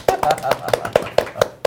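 Brief applause made of about eight sharp, evenly spaced claps in a steady rhythm, fairly loud, with no talking over it.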